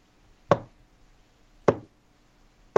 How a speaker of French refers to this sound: Ben, ou un cognage sur la fenêtre plus qu'un pianotement.